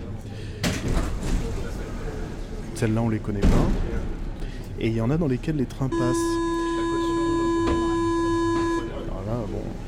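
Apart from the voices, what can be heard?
metro train doors closing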